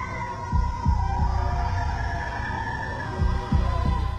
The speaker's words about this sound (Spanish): Nos dimos cuenta de que era un bloop. La misma criatura, que la NOAA grabó en 1997. Pero, en este caso, la grabación duraba más tiempo. Es el grito animal más complejo e intrincado que he oído. No teníamos ni idea de dónde provenía ese sonido.